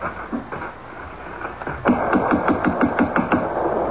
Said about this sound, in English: The house is closed. Shades are drawn. Well, we'll knock.